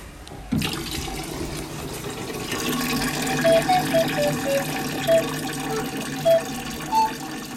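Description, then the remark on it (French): Water pours steadily into a container holding tadpoles, adding more water for them, after a short quiet moment, a continuous splashing gush with a few brief higher tones bubbling up as it fills. “bah, euh, aujourd'hui, on a eu des têtards qui vont se transformer en grenouilles et je vais leur mettre de l'eau encore parce qu'il bah, il n'y en a pas assez.”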